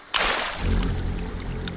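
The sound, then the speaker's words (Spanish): Water in a river sloshes and splashes continuously with a broad, rushing hiss, steady for a couple of seconds, with no voices over it. “Ven, salte del río.”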